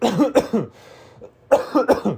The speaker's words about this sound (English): I'm not sick, but I do think that everybody around me thinks I am sick because I'm coughing a lot.